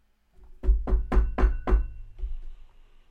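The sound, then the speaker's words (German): Five loud, evenly spaced, heavy knocks on a wooden front door while it is still dark outside, followed by a faint sixth thud and a short lingering resonance; no voices. “guckst draußen, ist es noch dunkel und du hörst Klopfen an der Haustür. Relativ starkes Klopfen.”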